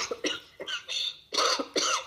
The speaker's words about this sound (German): Alles gut, warum hustest du?